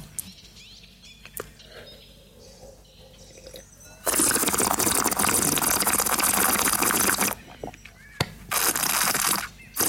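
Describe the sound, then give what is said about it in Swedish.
Drinking sounds of people sipping a drink after a toast: after a quiet stretch with a few small clicks, a long, loud rushing slurp starts, then a second shorter burst follows a brief pause. “ska vi testa att dricka det här en gång?”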